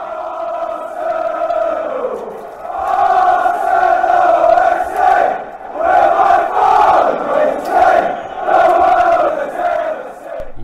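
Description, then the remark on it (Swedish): A large crowd of football supporters chanting together just after a match on Saturday that went well, in a sustained, rhythmic swell, voices rising and falling in loud waves with no single speaker standing out. “Men det är ju lite kul att höra hur, hur stämningen är. Lite precis efter match, framförallt när det gick bra som det gjorde i, eh, i lördags.”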